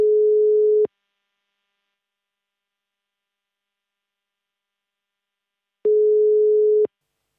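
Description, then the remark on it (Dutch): A telephone ringback tone as the Ajax supporters' association calls footballer Siem de Jong: two long, steady electronic beeps about five seconds apart, each lasting under a second at a single low-mid pitch, with silence between and no voices. “We gaan hem bellen.”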